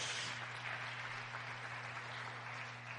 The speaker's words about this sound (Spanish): Démosle palmas al rey. Gloria a Dios.